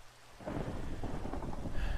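Steady rain hisses broadly while a deep rumble of thunder swells in after a quiet start, building to a loud, continuous roll with no voices present.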